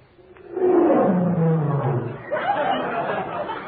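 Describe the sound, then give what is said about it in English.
A loud, deep roar, said to come from the Tigris River, swells up quickly, slides downward in pitch over a couple of seconds, then trails into a rougher, growling rumble that fades out. “That's the Tigris. It roared.”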